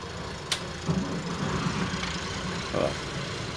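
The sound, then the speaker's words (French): The second engine of a boat at Saint-Florentin idles steadily, a low continuous rumble with a brief sharp click near the start and small bumps in level. “Moteur 2.”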